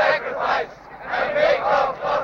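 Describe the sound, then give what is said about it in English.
A crowd of voices sings a rhythmic chant in unison at a sacrifice to the God of the Sun, swaying back and forth as they sing, rising and falling in repeated phrases with a brief dip between them, loud. “And they're singing this song, and they're they're swaying back and forth, and they're having.”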